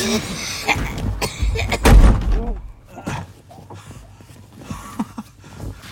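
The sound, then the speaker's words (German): A door is pushed shut behind a person leaving, a single heavy thud surrounded by shuffling and handling noises, then quieter movement and faint sounds afterward. “Und mach die Tür hinter dir zu, es zieht.”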